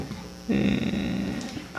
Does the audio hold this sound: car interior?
no